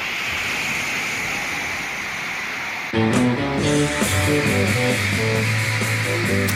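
A huge concert crowd roars and screams in a dense, unbroken wall of noise; about halfway through, loud band music starts up while the shrieking continues underneath.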